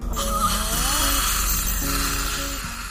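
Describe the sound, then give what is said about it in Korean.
A dental ultrasonic scaler buzzes steadily during a teeth-scaling at a dental clinic, removing heavy tartar build-up, under a constant high hiss, with wavering tonal whines that slide in pitch and shift midway through. No one speaks. “스케일링 시작할게요. 근데 너무 오랫동안 안 받으셔서 치석이 많으세요.”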